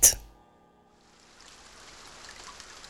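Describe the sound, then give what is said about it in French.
Rain falls outside at 3 a.m. at 6 impasse Roncin, Paris, on 30 May 1908, a soft, steady hiss that swells in after a single sharp, ringing strike at the start. It stays quiet, with no voices. “Il pleut dehors.”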